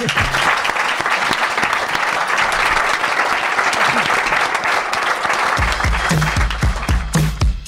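Sustained applause from an audience, a dense steady clatter of many hands clapping for several seconds, with a few louder individual claps and some crowd noise coming through toward the end.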